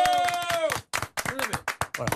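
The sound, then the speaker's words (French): An audience applauds loudly for the firm Poirier Immobilier with a burst of uneven, crackling claps. A voice cries out at the start, and the clapping carries on loudly in ragged waves. “Je vous demande à chacun euh, d'applaudir très fort, mais pas les, les, petits applaudissements que vous me faites d'habitude.”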